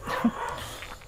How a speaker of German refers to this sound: Man hört wieder Hunde bellen im Hintergrund, aber diesmal sind sie nicht direkt bei uns.